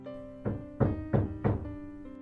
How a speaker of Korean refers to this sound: 노크를 해보았지만 아무런 기척이 없었고 이 사람들이 장난하나 하는 마음에 다시 문을 두드리기 시작했습니다.